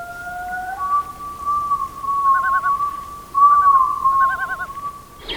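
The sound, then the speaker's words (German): A rare seabird's long, drawn-out wailing call holds a steady mid pitch, broken by several quavering, tremolo-like passages, with a faint hiss behind it and no talking. “Unser Vogel der Woche, ob seiner Schönheit und Seltenheit und fantastischen Stimme”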